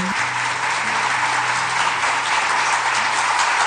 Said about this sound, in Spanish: Este aplauso es para vosotros.